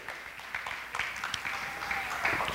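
Steady audience applause welcoming a guest speaker, a dense crackle of many hands clapping at moderate volume for the full stretch, with scattered sharper claps and faint cheering mixed in.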